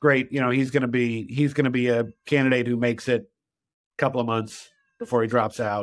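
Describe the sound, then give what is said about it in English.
A male cat meows a few times in the background, its drawn-out, rising-and-falling cries blending under a man's steady conversational speech. “Um, I'm sorry about the cat in the background.”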